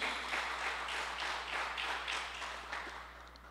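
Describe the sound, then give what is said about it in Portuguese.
An audience applauds the Lord, many hands clapping together in a steady, fairly loud wash of noise with a faint rhythmic pulse, tapering off slightly toward the end. “Dá um aplauso ao Senhor aí, que nos dá direção para a vida.”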